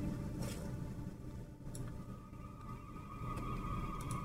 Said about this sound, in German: Und es gewittert anscheinend auch. Hat mir mein Soundboard gerade äh, erzählt.